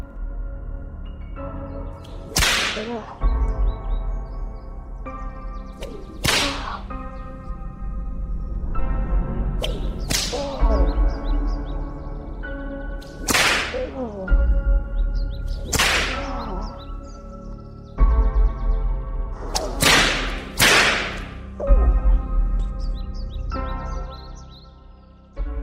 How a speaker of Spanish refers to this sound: El abuelo, después de enterarse de lo acontecido, agarró al chico, lo amarró a un árbol y golpeó su espalda a latigazos.